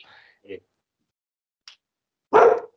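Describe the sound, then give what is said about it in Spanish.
A dog gives one loud bark near the end, after a couple of faint, brief yips and short sounds separated by quiet stretches. “Yo, Tengo el eh, gato afuera y tres perros aquí.”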